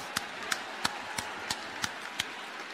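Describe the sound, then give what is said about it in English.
An audience gives itself a round of applause, heard as a steady, evenly spaced run of about seven sharp claps over low background noise, moderately loud, with no voices. “All right, give yourself a round of applause.”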